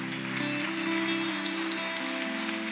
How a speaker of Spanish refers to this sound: Bueno, dele un aplauso a Dios por esa verdad.